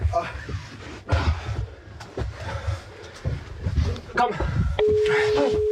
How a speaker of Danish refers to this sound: Åh, oh, det ringer nu.